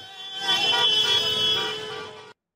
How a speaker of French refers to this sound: Sur les Champs-Élysées, encadrés par un important dispositif de sécurité, les supporters ont donné de la voix jusqu'à tard dans la soirée sans incident majeur, à grand renfort de drapeaux et de klaxons.